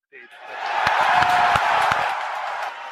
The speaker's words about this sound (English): As you can hear from the cheering here at SpaceX headquarters, uh, we did have a successful main engine cut off, the stage separation.